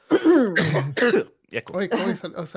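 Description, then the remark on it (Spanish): Someone coughs and clears their throat in a few rough, voiced bursts, with a brief pause in the middle before a second run of throaty hacking. “Uy, dijiste COVID y me dio tos.”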